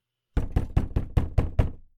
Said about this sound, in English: I'm actually going to get some more player on player interaction here and I would like to go knock on Victor's new door.